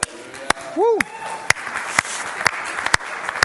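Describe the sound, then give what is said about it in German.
A room full of people applauds, dense clapping with a few sharp, loud claps landing roughly every half second, and a brief rising-falling whoop from someone near the start. “Applaus!”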